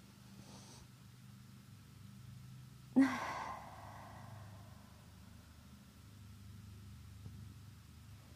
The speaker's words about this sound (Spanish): Y pues vamos a aperturar este episodio en presencia y en conciencia, para lo cual vamos a tomar una respiración profunda juntos y juntas y juntes.